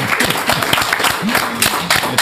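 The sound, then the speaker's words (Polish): Steady applause from a group for everyone who searched through the materials, a dense patter of many claps running throughout, with a voice briefly audible underneath. “Także brawa dla wszystkich, którzy przeszukiwali te materiały.”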